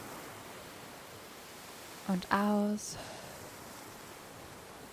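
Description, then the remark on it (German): A steady, soft wash of ocean surf fills the background throughout, with no distinct breaking waves, while a voice speaks briefly over it midway. “dich auf diesem Platz jetzt gut eingefunden hast und die Augen geschlossen hast, dann kannst du ja jetzt auch schon ganz langsam das Meeresrauschen hören.”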